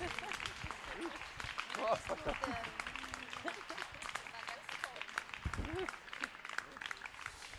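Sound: audience applause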